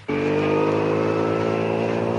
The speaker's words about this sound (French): Mais j'aperçois une sorte de charrue, de tracteur qui arrive vers nous.